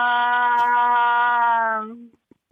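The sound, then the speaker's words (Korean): A person imitates a female cat's mating yowl, the call a female cat makes to summon a male cat for mating: one long, steady, nasal wail held for about two seconds, sagging slightly in pitch before cutting off, followed by a few faint clicks. “짝짓기를 하는데 숫고양이 아 짝짓기를 하고 싶어서 숫고양이를 부르는 소리.”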